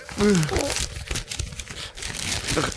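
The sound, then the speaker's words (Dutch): A sheet of soaking wet paper with text on it being unrolled, a steady soft crinkling and peeling rustle for a few seconds, with a brief voiced murmur near the start. “Ik rol nu dit kletsnatte ah. papier af.”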